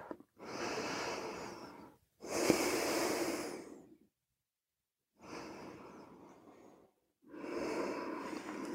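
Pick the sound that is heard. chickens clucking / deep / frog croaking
deep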